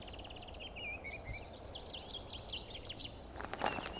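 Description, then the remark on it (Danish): A dunnock, a small brown-grey bird perched at the top of a tree, sings a fast, squeaky warble of high, jumbled notes for about three seconds over a low outdoor rumble, followed by a few brief rustling crackles. “Det er en jernsbog.”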